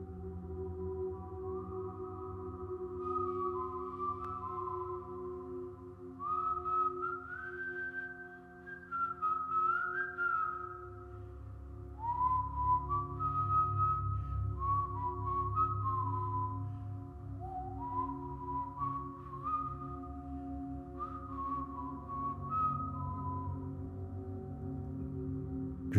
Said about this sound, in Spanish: El silbido tiene la misma melodía todas las noches. Es, es muy alegre.